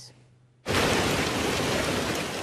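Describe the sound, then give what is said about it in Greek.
A quiet start gives way abruptly to a loud, dense roar of lemon-sized hail pounding surfaces in Kryoneri near Kalavryta, Greece, a continuous barrage of hard impacts that stays intense without pause. “Χαλάζι σε σχήμα λεμονιού, χτυπά τα καλάβρητα.”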